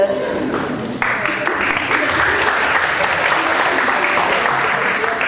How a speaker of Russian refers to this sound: Но спасибо за ваше аплодисменты.